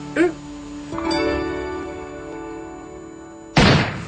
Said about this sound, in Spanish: El disparo proveniente de la habitación hace temblar las paredes plácidas del hogar y destruye como un cristal la endeble magia de humanidad sobreviviente.